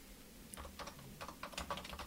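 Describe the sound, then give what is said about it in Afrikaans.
Quick, irregular clicks of fingers typing on a computer keyboard, entering a request for website text about plants, fairly soft, with bursts of keystrokes and a faint low hum underneath. No one speaks. “Goed, skryf daarin.”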